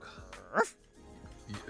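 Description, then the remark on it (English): A person mimics a crying dog's whimper with a short, high, rising whine. Softer vocal noises come before and after it. “you should always stop doing dog impressions.”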